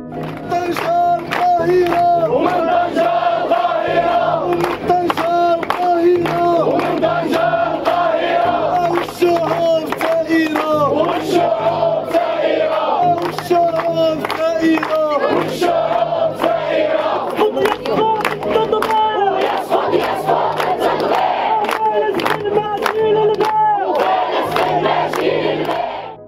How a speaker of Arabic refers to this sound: ساحات وميادين عربية ضجت بآلاف الحناجر المحتشدة للمطالبة بوقف العدوان على الفلسطينيين وإسقاط كل مظاهر التطبيع العربي الإسرائيلي.